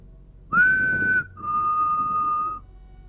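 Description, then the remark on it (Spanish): Two sustained whistled notes from a person with a fairly young voice, heard while sitting on benches; the first slightly higher and shorter, the second a long steady tone a bit lower, clear with faint breathy noise underneath. “Una vez que llegamos ahí, nos sentamos para platicar y al ratito empezó a escucharse un silbido emitido por una persona, o al menos es lo que pensábamos, eh, una voz medio joven, en la cual empezó a dar este tipo de silbido.”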